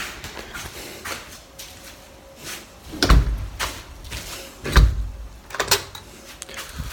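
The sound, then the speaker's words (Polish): A door, installed with a gap, is opened and closed, with scattered rattling clicks and two solid, dull thumps as it bumps shut in a quiet space. “Ale już te drzwi to mogliby zamontować bez szpary.”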